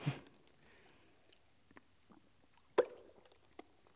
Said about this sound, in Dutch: Even een slokje hoor.